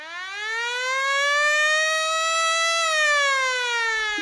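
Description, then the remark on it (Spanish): A loud, steady siren wails alone, its tone slowly rising and then gently falling in one long sweep, bright with many harmonics and no voices present. “disclaimer alert.”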